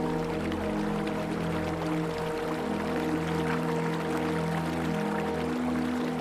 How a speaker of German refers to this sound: Die Geräusche der vorbeifahrenden Autos wandeln sich in das beruhigende Rauschen eines Flusses.